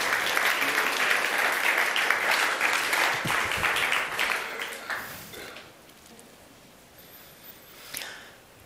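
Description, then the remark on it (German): A crowd applauds for Jesus with dense, steady clapping for about five seconds, then the sound thins out and fades, leaving a few scattered claps. “Wir geben Jesus einen riesen Applaus.”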